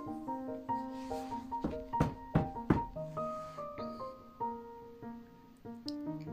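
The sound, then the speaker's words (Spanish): Three sharp, evenly spaced knocks on a door, as Little Red Riding Hood (Caperucita) arrives and knocks at her grandmother's door, where the wolf is waiting. The knocks cut through gentle, sustained instrumental music that plays throughout, with no voices. “Estaba allí instalado cuando llegó Caperucita y golpeó la puerta.”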